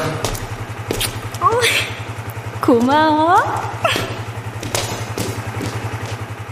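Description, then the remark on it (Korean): A motorcycle engine idles with a steady low, throbbing rumble throughout, with a woman riding on its back seat to a small corner shop, while a voice speaks briefly over it and a few soft thumps sound. “사실은 나도 아내가 오토바이 뒷자리에 타고 구멍가게까지 온다는 사실은 전혀 모르고 있었다.”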